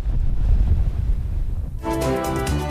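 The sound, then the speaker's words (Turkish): Stormy wind in Sakarya roars and buffets the microphone over a low churning sea for nearly two seconds, then cuts abruptly to a sustained tonal sound. No one speaks. “Fırtına Sakarya'yı da vurdu.”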